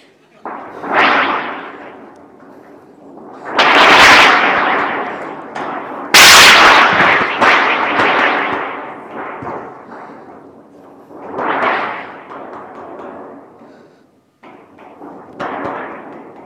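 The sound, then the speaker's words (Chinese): Foley thunder shaken from a thunder board, performed as a demonstration of the thunder board's sound: several rolling, rumbling swells with sharp cracking peaks, the loudest burst sudden and harsh around the middle, then smaller rumbles fading in and out. “我给大家表演一下这个雷板的声音，就是所有的生活的雷，大家可以闭上耳朵听，这个雷是什么类型的啊？”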